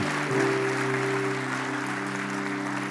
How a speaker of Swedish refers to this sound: God kväll Wow Church. Ska vi ge en applåd